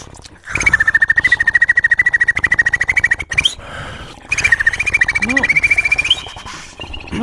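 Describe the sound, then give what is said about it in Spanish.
Two bursts of a beatboxed whistle combined with an inward click roll (an R made breathing in): a steady high tone layered over a rapid rattling roll, each lasting a few seconds with a short break between them, loud. “ya que lo tienes, combinas el silbido con la R.”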